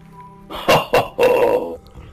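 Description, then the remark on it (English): A dog gives a quick pair of gruff barks followed by a longer, drawn-out grunting growl in reply to being asked a question, fairly loud, with no one talking over it. “Like last time, I'm going to ask him, dog, is T-P-O-R”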